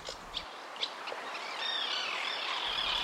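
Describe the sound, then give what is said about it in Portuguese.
Small birds chirp and twitter softly, with a few brief high calls early on, then a steadier warbling song over a faint airy background. No voices. “A árvore imediatamente floresceu e os passarinhos vieram cantar nela.”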